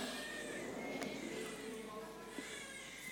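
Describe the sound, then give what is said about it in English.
A person in the audience at a Christmas Eve church service cries, a faint, wavering wail that keeps going for several seconds, with a short sharper sob near the end. “That person crying has heard me before, by the way.”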